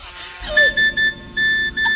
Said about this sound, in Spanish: Ay, espérate, espérate que me está sonando el móvil.